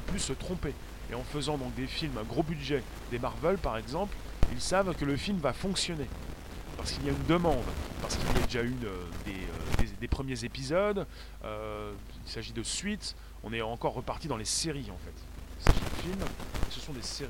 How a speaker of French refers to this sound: Ça grésille beaucoup. Bah, je vais vérifier, mais bon. Alors, si ça grésille, bah, ça va.